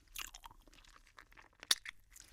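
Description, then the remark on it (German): Crinkling of a plastic gummy bear bag, a run of quiet crackly rustles with one sharp, louder crackle near the end, about 50 to 60 decibels loud. No one speaks. “Und dieses Geräusch von der Gummibärchentüte das ist so 50, 60 Dezibel laut.”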